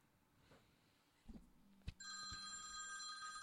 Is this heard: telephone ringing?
yes